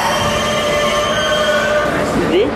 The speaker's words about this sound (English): This is a Queens-bound E train via the F line. The next stop is 42nd Street, Bryant Park. Stand clear of the closing please.